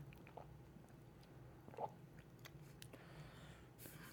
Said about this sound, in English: All right, take his first sip here.